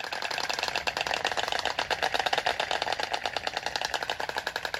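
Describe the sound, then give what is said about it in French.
A colony of storks in seven perched nests clatter their bills in a courtship display, each bird throwing its head and bill back, making a rapid, steady rattle of dry wooden clicks, like a fast typewriter, loud and continuous for the whole stretch with no voices. “Chaque oiseau balance la tête et le bec en arrière et émet des claquements de bec en rythme.”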